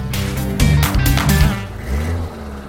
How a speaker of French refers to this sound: On y va, papy Fais chauffer le moteur